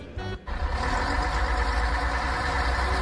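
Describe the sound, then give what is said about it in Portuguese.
A heavy bus engine idles steadily, a deep continuous rumble with a brief dip right at the start before settling into an even drone. “A gente pega um ônibus desse, cheio de sacola na mão, não tem um cristão para dar lugar pra gente.”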